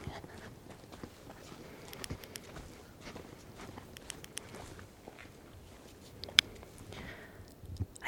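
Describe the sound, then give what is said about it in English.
Footsteps crunch steadily along a forest trail at night, a quiet irregular patter of steps on leaves and dirt, with soft rustling and no talking. “I borrowed my nine year old stick. It's totally quiet. I can see my breath.”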